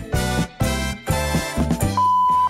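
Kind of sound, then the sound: machine, answering machine beep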